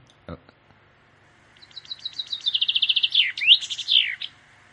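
A common chaffinch sings one full song: a bright, high trill of repeated notes that speeds up and gets louder, then breaks into descending phrases and ends with a quick flourish. A soft click comes first.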